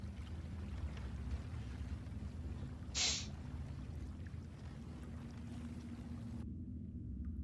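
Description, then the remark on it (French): A steady low rumble of boat ambience fills the background, with one brief, sharp creak-like burst partway through, before the higher sounds drop away near the end. “Je me rends compte que j'avais laissé le son du bateau depuis le début.”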